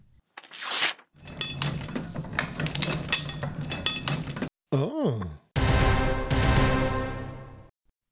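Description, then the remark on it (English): Heavy mechanical clanking and grinding from a printing press, loud, in several bursts with brief pauses between them, one short whooshing swoop in the middle, and no voices. “Yes, this week we're going to be talking about one of the most revolutionary inventions ever created, and that is the printing press.”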